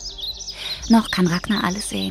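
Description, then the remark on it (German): Birds chirp softly in evening woodland by a pond, their high, twittering calls continuing steadily beneath a person speaking calmly in the foreground. “Sie hört die Grillen und anderes Getier, sie hört die Vögel, und es ist ihr”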